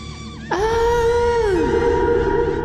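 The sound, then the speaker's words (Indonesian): A single loud scream bursts in suddenly, holds a high, strained pitch for about a second, then slides downward and trails off into a rumbling background noise. “Teriakku sekuat mungkin.”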